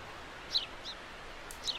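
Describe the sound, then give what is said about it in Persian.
A small bird chirps a few times, short high-pitched tweets spaced irregularly over a soft, steady rustling hiss, fairly faint and with no one talking. “یه پرنده کوچولو هم اومد نشست رو شاخمون”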